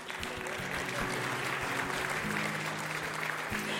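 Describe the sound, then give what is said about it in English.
An audience claps for God's promises, steadily throughout, a dense, continuous wash of many hands at an even loudness, with a faint low hum running underneath. “God's promises are worth clapping for.”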